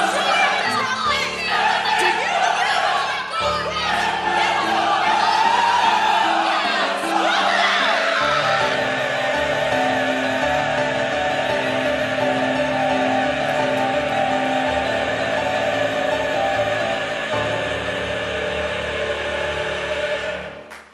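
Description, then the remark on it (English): The 60-person Portland Opera Chorus sings a portion of O Fortuna from Carmina Burana loudly and continuously, many voices holding sustained, swelling notes together in a full, dense sound that stays powerful throughout before cutting off at the end. “so what you just heard was the 60 person strong Portland Opera Chorus singing a wee portion of O Fortuna from Carmina Burana, a show they'll be performing at the end of this month, along with Pagliacci.”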